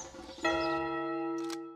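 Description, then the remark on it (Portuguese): A single loud church bell strike rings out and hangs in the air, its bright overtones sustaining and slowly fading, with a brief rustle of noise near the end. “que lá do alto da montanha o sino vai anunciar”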